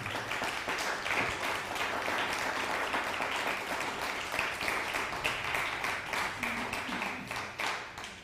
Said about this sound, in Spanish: un fuerte aplauso, Argentina.